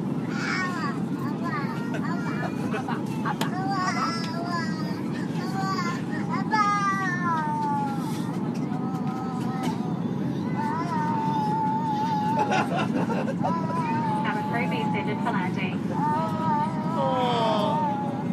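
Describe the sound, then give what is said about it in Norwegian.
Several babies wail and cry at once on an airplane coming in for landing, one close by and others farther off, their overlapping cries rising and falling over a steady, loud airplane cabin rumble. “Dere hører mest den babyen som er nærmest meg, men dere hører hører også en del andre babyer eh, som er rundt omkring.”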